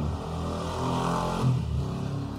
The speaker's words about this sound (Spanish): pasando ahí una moto, la CMX, ajá.